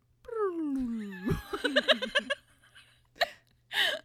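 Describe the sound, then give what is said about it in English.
A voice imitates a musical saw, a long wavering wail that slides steadily downward, then breaks into a quick run of choppy laughter followed by a couple of breathy bursts. “like the saw.”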